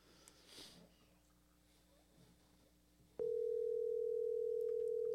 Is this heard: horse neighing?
no